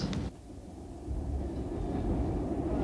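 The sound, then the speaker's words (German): A moving train travelling from Calder Hall to London rumbles steadily on the rails, a dense low-pitched roar filling the scene, with a brief higher rattle at the start and a slight swell in loudness partway through. No voices. “Im fahrenden Zug von Calder Hall nach London zurück treffe ich den Atomminister Franz Josef Strauß.”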